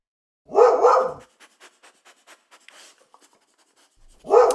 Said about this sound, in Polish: W dodatku pies zaczął strasznie szczekać i jakoś dziwnie się zachowywać.